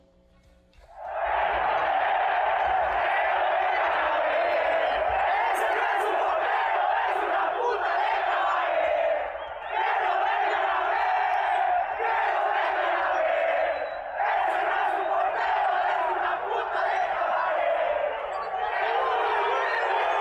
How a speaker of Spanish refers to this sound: Pero mira, esto es, esto vamos a escuchar de hecho la reclamación del público hacia Tiago Volpi y esto fue lo que pasó.